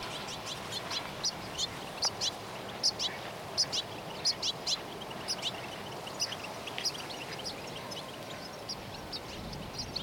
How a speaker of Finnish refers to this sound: No haluaisitteko semmoisen pienen seikkailun ö, helsinkiläisessä rantapuistikossa? Käy. Kokeilla. Tässä on mukana myös selostus. Tiklejä.